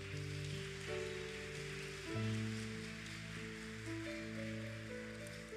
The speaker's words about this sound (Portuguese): Pode aplaudir o Senhor.